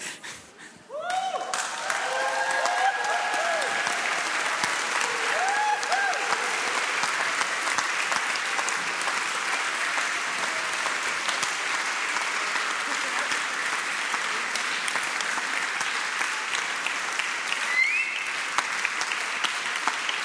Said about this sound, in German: Dann gibt es einen Applaus.